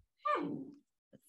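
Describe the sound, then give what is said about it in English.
A single short dog whimper, a whiny tone that slides downward in pitch and fades within about half a second, moderately loud, followed by a faint brief noise. “sorry that's my dog making a little whimper”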